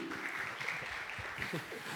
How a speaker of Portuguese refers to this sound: Boa, salva de palmas para o bebê.